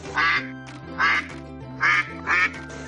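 A duck quacks four times in a steady rhythm, each quack a loud, nasal burst, with short pauses in between.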